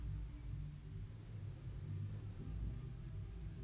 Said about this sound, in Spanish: Todas las personas pasando a tu lado. Los coches. Siente el sonido. Cada sonido que pasa por tus oídos siéntelo.